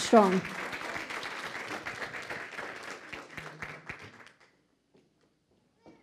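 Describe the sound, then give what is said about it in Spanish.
An audience, asked to stand, bursts into dense, steady, strong applause lasting about four seconds before it stops abruptly into near silence, with a brief voice heard at the very start. “Dele ese fuerte aplauso ahora sí.”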